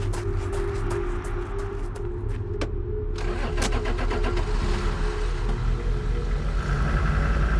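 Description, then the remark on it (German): A car engine turns over and settles into a steady running rumble, with a few sharp clicks and rattles scattered over the low drone. “Und plötzlich ist einfach ein Auto neben mir gestanden, wie aus dem Nichts.”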